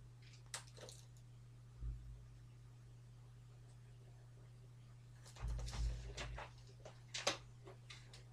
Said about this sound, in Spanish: primero bebo agua y ya, y ya la comentamos.